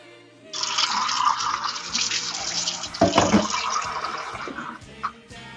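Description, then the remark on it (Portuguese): Water runs steadily from a tap for about four seconds with a loud, broad hiss, briefly splashing and clattering as a cup is rinsed under it, then stops. “É, não era a torneira. Eu tava passando uma água na xícara.”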